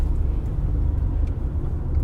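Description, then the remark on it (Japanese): Steady low rumble of a car rolling along a road on the drive home, with dense traffic of many cars droning continuously and a few faint higher ticks and swishes over the constant engine hum. “混むのは甲州街道っていうのを越える時だけなんですけどえー、どうですかね車が多いな”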